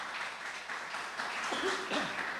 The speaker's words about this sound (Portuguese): Agora pode aplaudir o Senhor com toda a tua força.